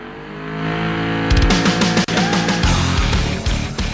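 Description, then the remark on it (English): A gasoline car engine idles with a low rumble, then roars into loud revving, with a brief drop partway before the engine surges again. No one speaks. “This is not an EV and it never will be.”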